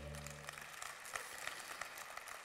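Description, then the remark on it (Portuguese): A church audience applauds steadily, a dense wash of many overlapping claps with sharp individual hits. A low hum sounds under the first moment, and no one speaks. “Dá uma salva de palmas aqui para o pessoal.”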